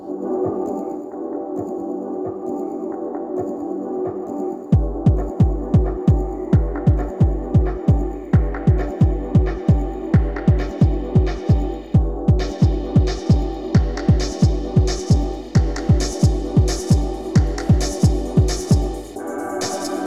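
A 90s-style electronic track: a droning synth pad opens alone, then a steady, punchy kick drum thumps in a driving four-on-the-floor pulse, with brighter hi-hat layers building partway through.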